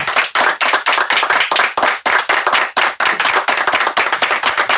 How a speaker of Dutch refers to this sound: Goed applaus. Ik heb nog nooit zoveel applaus gehad. Gaat maar door.